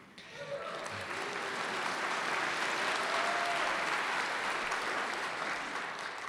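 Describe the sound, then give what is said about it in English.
A crowd applauds steadily with dense, sustained clapping and some cheering mixed in, filling the whole stretch at an even, fairly loud level, as a Minnesota audience welcomes Jonathan Capehart. “I haven't even gotten to you, Jonathan, and they're already cheering.”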